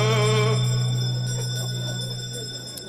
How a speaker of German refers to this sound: Habt ihr sie gehört? Habt ihr sie gehört? Die Glöcklein, die Glocke. Es ist die letzte Runde.